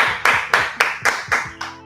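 Six sharp hand claps during a live stream, in a steady, fairly quick rhythm, each crisp and bright with a short ringing tail, while a faint low steady tone hums underneath.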